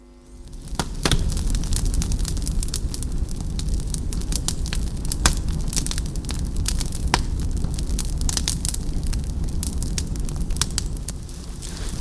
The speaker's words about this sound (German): Lass uns ein bisschen Feuer machen.